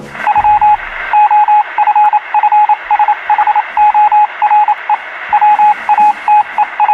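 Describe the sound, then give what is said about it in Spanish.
A steady stream of beeping tone pulses, keyed on and off in an irregular rhythm like telegraph signals, over a thin crackling radio hiss; no voices. Signals on the 1960s Washington–Moscow hotline, a telegraph line linking the Pentagon with the Kremlin. “En realidad lo que era era una línea de telégrafo que conectaba el Pentágono con el Kremlin a través de Washington”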